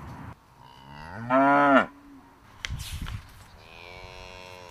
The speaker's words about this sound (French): Les vaches.